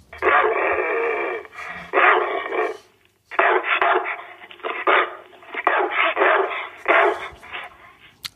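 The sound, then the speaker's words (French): A beauceron dog barks and grumbles in a loud run of long, harsh, drawn-out vocal bursts, with a brief pause partway through; the sound is narrow and slightly muffled, like a phone recording. “Et pour terminer, on écoute la question d'un bosseron de Ponto de Mer dans l'heure.”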